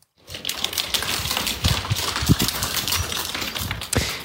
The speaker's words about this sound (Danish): Det er lyden af en flok øh, vilde bjerggeder, der går rundt og spiser af hække og haver i øh, den mennesketomme valisiske by Klandotner.